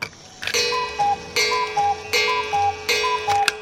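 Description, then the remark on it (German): A wall of cuckoo clocks in a museum exhibition room about Baden ticking together, sharp clicks overlapping in an uneven, steady rhythm with a faint ringing hum beneath; no one speaks. “Die Kuckucksuhren, die verfolgen uns heute irgendwie, denn wir stehen jetzt vor einer ganzen Wand voller Kuckucksuhren.”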